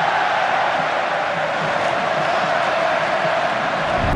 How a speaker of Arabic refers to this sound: اسمع اسمع جمهور العنابي اسمع اسمع الله الله الله الله